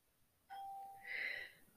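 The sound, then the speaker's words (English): A short two-note electronic chime, a steady lower tone followed by a brighter, higher one, like a phone app notification, sounding clearly on its own with no talking. “You heard that thing? That's the notification.”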